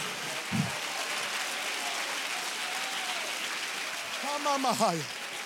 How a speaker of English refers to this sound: Come on, clap a little louder. Clap a little louder. Clap like you believe you're anointed. Clap like you believe you're still chosen.